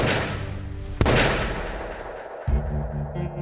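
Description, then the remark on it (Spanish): Two sharp gunshots fired on Abraham González street as Mella walks there ring out about a second and a half apart, the first a loud crack with a long decaying tail, the second slightly softer, over a low rumbling background. “Después, dos disparos.”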